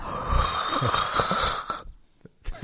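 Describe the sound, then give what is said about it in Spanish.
A long, breathy yawn made with the microphone moved away, slightly distant and muffled, lasting under two seconds before tapering into near silence with a faint rustle at the end. “Me, alejé el micrófono para bostezar.”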